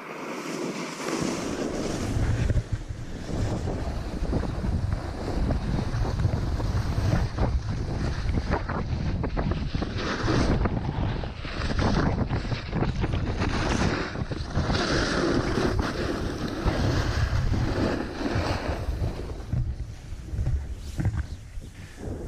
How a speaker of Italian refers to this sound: Questo è il sottofondo che ultimamente mi accompagna, per eh, due motivi. Uno perché mi piace sentire il rumore della neve sotto la tavola. Già solo quel suono evoca un casino di ricordi fantastici